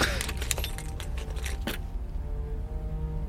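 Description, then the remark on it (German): A key jingles and clicks in a door lock several times in quick succession as someone locks the door behind them, then stops, leaving a steady low hum. “Ich sperre mal hinter mir die Tür wieder zu.”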